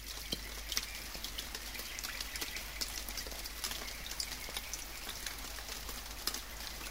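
Steady patter of storm rainwater dripping from the leaves of a sumaúma tree in the Amazon rainforest after the rain has stopped, forming a large puddle on the ground, with scattered sharper splats over a constant wet hiss and a low rumble; no voices, a dense dripping texture.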